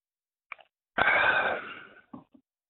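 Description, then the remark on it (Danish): Someone takes a sip of beer: a faint lip click, a loud breathy rush of about a second that fades, then a couple of small swallowing clicks. “Konceptet er, at han øh, drikker enten øl eller vand, og du skal så gætte, hvad det er, han drikker ud fra lyden.”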